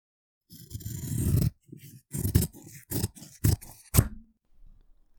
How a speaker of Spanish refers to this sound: El sonido de unas tijeras muy afiladas dan paso al boqueo de …